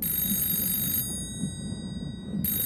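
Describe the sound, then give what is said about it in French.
A warning bell, rung by lookouts in the crow's nest to raise the alarm on sighting an iceberg, rings in a steady, rapid metallic clatter over a low rumble, drops out for over a second, then starts ringing again. “Mais ça les empêche pas de lancer l'alerte en sonnant la cloche et en criant dans un téléphone steampunk.”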